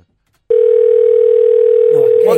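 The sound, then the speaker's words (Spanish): A telephone dial tone switches on abruptly after a brief silence, as a number is about to be dialed again, and holds as a steady, loud, unbroken hum; near the end a voice begins talking over it. “otra vez, otra vez, otra vez. Vamos a marcar.”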